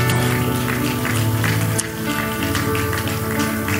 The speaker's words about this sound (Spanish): Y así, en esa actitud de reverencia a Dios, dele una ofrenda de palmas en señal de agradecimiento.